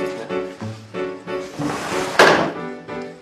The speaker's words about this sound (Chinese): 我只是想，你睡觉应该会关门，所以试试看这个门有没有坏掉，这样也不行吗？